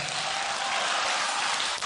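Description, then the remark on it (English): A church audience claps and shouts together, a dense, steady wash of applause and voices that holds at an even, fairly loud level for about two seconds. “If you are the one, clap and shout, I am the one.”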